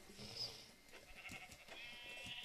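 A couple of short, thin sheep bleats rise over a low background hum, one early and another drawn out near the end, fairly faint with no one talking.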